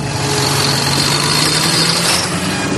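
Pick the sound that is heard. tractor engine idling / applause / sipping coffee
tractor engine idling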